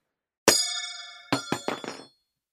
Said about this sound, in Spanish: Como si fuese el choque de la piedra sobre el metal.